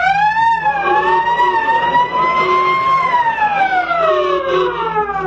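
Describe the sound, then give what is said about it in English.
A loud fire engine siren wails continuously as fire engines come running, its pitch slowly rising and falling over a steady rumble of engine and traffic noise, with no one speaking. “Fire engines came running, and there was much excitement.”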